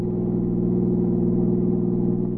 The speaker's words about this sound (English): As their train sped through the night, a black sedan moved up the street of the border town.